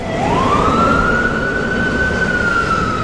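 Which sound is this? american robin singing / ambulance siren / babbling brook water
ambulance siren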